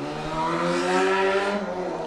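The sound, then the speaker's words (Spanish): A motorcycle engine revs up with a rising, buzzing whine, swelling loudly as it passes by and then easing off slightly, heard alone without any talking. “Ahí pasó Tatis, que ya no es repartidor, ahora es piloto de pruebas de motocicleta.”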